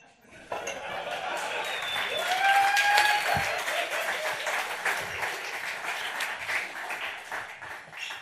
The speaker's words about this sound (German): Dafür natürlich Glückwunsch und nochmal Applaus bitte hier.